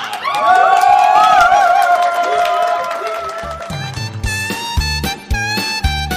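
A crowd bursts into loud applause and cheering for a few seconds to welcome contestant number 7 at a singing contest, then a bouncy, rhythmic musical intro with a steady beat takes over as the clapping fades.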